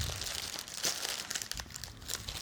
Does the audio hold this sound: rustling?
yes